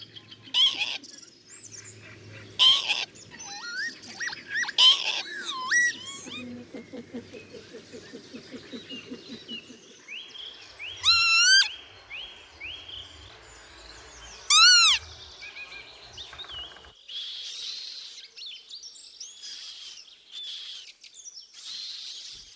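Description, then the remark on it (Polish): Repeated wheezy, slurred calls of northern lapwings, some sharp and loud, mixed with thin high peeping from hungry chicks, over a faint outdoor background with no talking. “W takim razie teraz zapraszam Cię do wysłuchania tak naprawdę tego odgłosu Czajki.”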